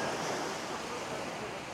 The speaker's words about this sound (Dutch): een beetje te mijmeren en te kijken, te observeren, vooral ook luisteren naar de oceaan.